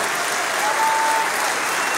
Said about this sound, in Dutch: En een uh, groot applaus vanuit de VVD in de zaal.